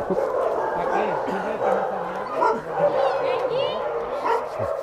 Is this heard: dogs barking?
yes